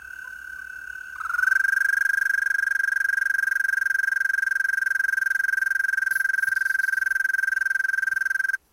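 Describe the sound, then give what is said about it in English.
A sustained, steady high-pitched trill from an American toad (Anaxyrus americanus, formerly Bufo americanus), starting softer then swelling and holding at an even pitch for several seconds before stopping abruptly. “American Toad. Anaxyrus americanus, formerly Bufo americanus.”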